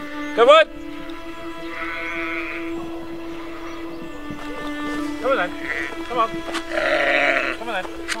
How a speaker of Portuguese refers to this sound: Entre os pés de vinha surge um rebanho de ovelhas de cabeça e patas pretas